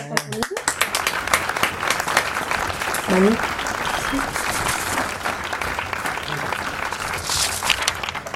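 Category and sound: crowd, applause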